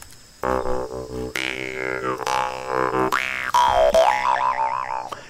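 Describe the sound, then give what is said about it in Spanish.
A jaw harp, called gambarda in Spain and trompe in Colombia, twangs alone, its buzzing drone plucked in rhythmic bursts while the tone bends through wobbling, vowel-like wah sweeps. “este instrumento que va a sonar ahora se llama una gambarda en España. En Colombia se llama trompe.”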